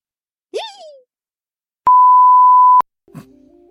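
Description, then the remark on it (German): An Alexa smart speaker's pill-reminder countdown timer alarm sounds as one loud, steady electronic beep lasting about a second, preceded by a short swooping tone, with a brief voice-like sound just after. “Äh, mein, mein Tabletten-Countdown ging gerade los.”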